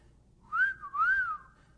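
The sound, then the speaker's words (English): A clear two-part wolf whistle, pitch sweeping up sharply and then gliding down, whistled by a person in a grocery store at the clerk behind the counter, with no talking around it. “Next thing I knew, a wolf whistle seeped through my northern lips.”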